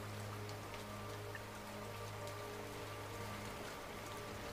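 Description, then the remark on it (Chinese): Raindrops fall on the deck of a small boat at sea in a steady, soft patter, with scattered light taps from individual drops over a constant low hum. No one speaks. “把点滴雨水带到小船甲板上，或是你的身体上”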